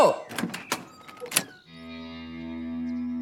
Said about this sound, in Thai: นี่ถ้าจะเปิดประตูเข้ามาโดยไม่สนความสมัครใจ ที่หลังก็ไม่ต้องถามก็ได้นะแม่